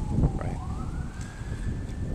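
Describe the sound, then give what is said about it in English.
Wind blows steadily, rumbling and buffeting against the microphone, while a faint siren wails upward in the background. No one speaks. “anyways, getting windy now.”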